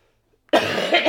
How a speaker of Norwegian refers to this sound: Fytti helvete. Nå fikk jeg real eh, hostekule. Jeg har vært ute og spasert i dag, så jeg er litt Kanskje det er denne regn...